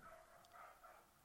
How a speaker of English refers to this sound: Can you hear that? That's more than one dog, isn't it? Why do people have dogs like that? They just bark. They do nothing but bark.